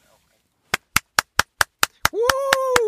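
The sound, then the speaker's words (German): One person applauds with about ten sharp, evenly spaced hand claps at a quick steady beat. A loud cheering "woo" rises over the last few claps. “Du hast vergessen, dir die Nase zuzuhalten bei deinem Applaus.”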